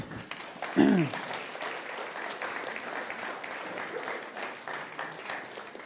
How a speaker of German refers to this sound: dein Applaus.